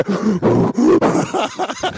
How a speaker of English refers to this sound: The, it's like the only thing that I can hear loudly this week is your breathing. My breathing, yeah,